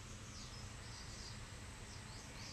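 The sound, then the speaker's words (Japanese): Faint birds chatter with a few short, repeated high chirps over a steady hiss of outdoor background noise. No one speaks. “今の私のいいねはこのおしゃべりしてる鳥の声です”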